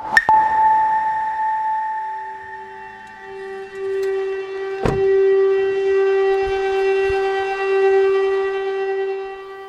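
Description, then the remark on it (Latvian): An air raid warning siren in the town of Sloviansk, Donetsk region, eastern Ukraine, warning of a possible air raid, holds a long, steady droning tone across the whole stretch, loud and ringing, with a couple of sharp knocks breaking in near the start and midway. No one speaks. “Slovjanskas pilsēta Ukrainas austrumos, Donetskas apgabalā, sagaida ar sirēnām, kas brīdina par iespējamu gaisa uzlidojumu.”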